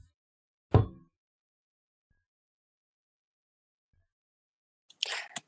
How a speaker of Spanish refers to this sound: Y Tal vez un par de minutos después, otra vez escuchamos cómo se pica esa puerta. Esta vez solo una.